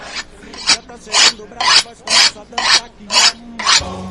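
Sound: knife being sharpened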